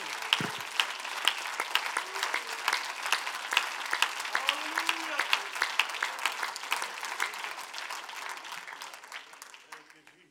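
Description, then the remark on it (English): A church audience applauds the Lord after a scripture reading, steady dense, crackling claps for about ten seconds. A few faint voices call out partway through before the clapping thins and fades away. “Let's just applaud the Lord because that's some powerful scripture.”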